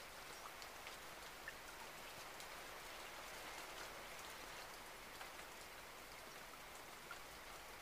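Steady rain falls continuously, a dense, even hiss with scattered soft droplet taps on a surface throughout. No voices are present.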